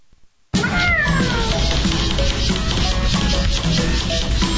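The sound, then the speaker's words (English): An outdoor cat that wants to come inside meows plaintively several times, drawn-out, over a steady rushing background noise that begins abruptly after a brief moment of near silence. “Ain't nothing sadder than an outdoor cat thinks he's an indoor cat.”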